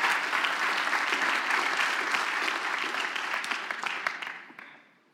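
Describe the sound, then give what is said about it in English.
An audience claps their hands to thank the Lord after a prayer, a dense, sustained burst of applause that stays loud for about four seconds, then thins out and fades away at the end. “Clap your hands and tell the Lord, thank you.”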